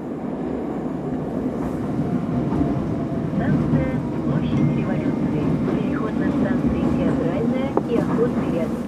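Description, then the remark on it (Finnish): The busy Revolution Square metro station in Moscow, Russia, with a steady, loud rumble of a train running through, mixed with the murmur of many people talking indistinctly. “Vallankumouksen aukion metroasemalta on vain lyhyt kävelymatka Moskovan ydinkeskustan kulutusjuhlien keskiöön 120-vuotiaaseen GUM-tavarataloon.”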